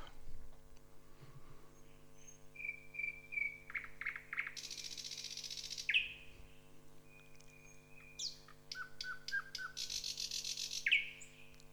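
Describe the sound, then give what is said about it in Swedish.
A nightingale sings loudly in choppy, varied phrases: steady whistled notes, rapid clicking trills and harsh buzzy bursts, broken by short pauses, over a faint low hum. “Jag pratar om näktergal.”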